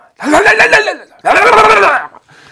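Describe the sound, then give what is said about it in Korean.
A voice does a loud rolled-tongue trill imitating the sputtering of a father's old, noisy motorcycle that often breaks down, in two rattling bursts of about a second each separated by a short pause. “아주 그냥 소음 때문에 내가 아주 그냥. 아버지 오토바이 새로 사드려요.”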